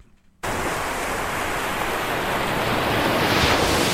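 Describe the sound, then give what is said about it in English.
Waves lap and wash onto a beach in a steady hiss of surf that starts abruptly after a brief silence and swells slightly toward the end. No voices. “That's right, waves lapping on the beach.”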